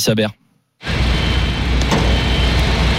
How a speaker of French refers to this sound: les bruits de tractopelles ont remplacé les chants des supporters. Les ouvriers coulent en ce moment la première couche d'enrobé pour installer la toute nouvelle piste d'athlétisme du Stade de France.